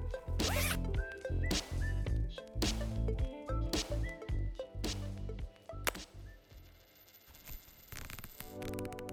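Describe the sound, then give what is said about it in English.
A camera case zipper is pulled open and closed in a series of quick rasping strokes, roughly six in a row with brief pauses between, fairly loud with no talking. “you've got to pull your stuff out, unzip the case, pull the camera out, zip it back up, put all your stuff back, organize everything, put it back into the bag.”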